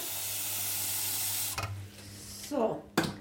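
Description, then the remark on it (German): Water gushes steadily from a tap into a pot, being filled so the water can be boiled, for about a second and a half, a broad hiss, then cuts off, followed by brief clatter and a voice. “Und jetzt stelle ich mal das Wasser hin, weil das muss kochen.”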